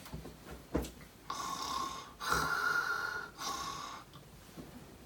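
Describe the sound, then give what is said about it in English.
A sleeping man snores in three long, rasping breaths, each a steady raspy drone with short pauses between, fairly loud with no talking. “Jesus was sleeping at the back of the boat with his head on a cushion.”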